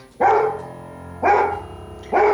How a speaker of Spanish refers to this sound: Hasta mi perro está indignado. A ver si lo callo. Tito, Tito, ven aquí. Tito, Tito, ven aquí, ven aquí. Tito, ya, ya, ya. Ven, ven aquí.